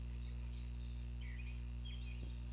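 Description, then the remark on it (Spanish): Faint chirps and tweets of small birds come and go over a steady low electrical hum, scattered rather than a continuous song. “Mira, pa, qué bonitos pajaritos. De seguro tienen su nido demasiado cerca.”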